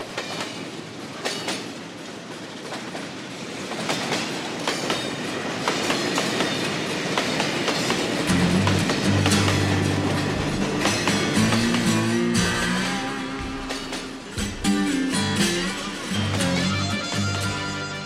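A suburban train rolls along the rails with a steady, loud rumble and rhythmic clickety-clack of the wheels; a low droning hum joins in about halfway through.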